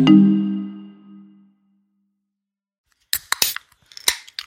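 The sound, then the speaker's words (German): A fading musical tone gives way to silence, then a can of Guarana Antarctica Zero soda is cracked open with sharp clicks and short bursts of fizzing spray. “Oh, das spritzt hier.”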